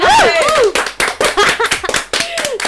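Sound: hand clapping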